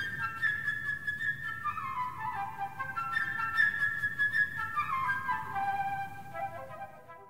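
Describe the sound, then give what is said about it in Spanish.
A flute plays a lively, chirping melody of quick high trills and runs depicting the bird character in an orchestral work where instruments represent characters, over a soft orchestral backdrop with no talking. “Esta obra es probablemente una de las más lúdicas e ingeniosas que se han compuesto alguna vez, sobre todo porque logra con instrumentos musicales atribuirles carácter a los personajes, la vivacidad del pájaro que se representa con la flauta,”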